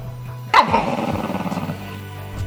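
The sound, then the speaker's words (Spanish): A dog lets out a single sharp, loud bark, trailing off into a rough, wavering growl that fades over about two seconds, with a low steady hum underneath. “Y hasta tu perro te mira mal.”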